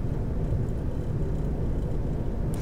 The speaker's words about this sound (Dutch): Hopelijk, hopelijk heb je het goed gehoord en is het achtergrondgeluid van de auto niet te storend.